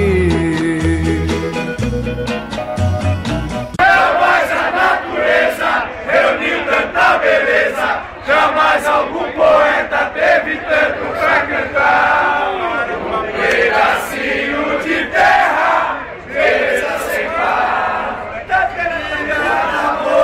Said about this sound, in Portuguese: Outro clube que faz 100 anos é o catarinense Havaí. Vamos ouvir a torcida do Havaí.